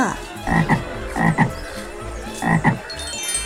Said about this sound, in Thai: ระหว่างทางกลับบ้านในขณะที่จะข้ามสะพาน เขาได้ยินเสียงกบร้องดังมาจากแม่น้ำว่า